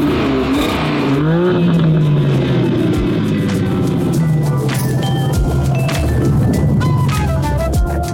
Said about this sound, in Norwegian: Da er vi bak rattet i eh, M2-en, og her sitter man veldig godt. Jeg skal bare sette den i Sport Pluss. Det er der vi vil være med en sånn bil som er. 460 hestekrefter, en 3 eh, liters sekssylindret eh, motor, som jo er det man vil ha.